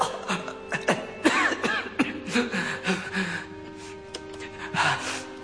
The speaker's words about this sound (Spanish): empieza a toser sangre